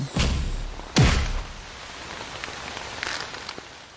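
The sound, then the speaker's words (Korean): Heavy rain pours down in a dense, steady hiss that fills the whole clip, broken by a dull thump at the start and a heavier low thud about a second in. “세차게 쏟아지는 빗줄기 속에 거친 숨을 몰아쉬는 두 남자가 마주보고 서 있습니다.”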